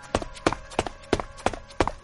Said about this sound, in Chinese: 然而在此期间，他听到身后发出咚咚咚的声响，原来那根拖把竟然一跳一跳的跟着他。